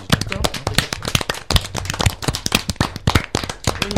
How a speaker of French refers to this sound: Je propose d'applaudir